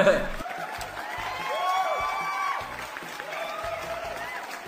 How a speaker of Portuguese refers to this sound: Mas temos vocês! Exatamente. As vozes que eu pego no Google pra colocar de plateia.